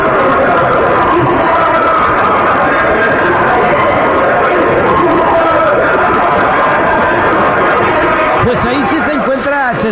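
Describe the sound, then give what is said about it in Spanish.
A dense, unbroken wall of many voices wailing and screaming in distress, loud and reverberant, with a few rising and falling moans standing out near the end; a recording said to have been captured by Russian drillers at the Kola borehole, from deep in the earth. “escucha gente gritando y sufriendo, ¿no?”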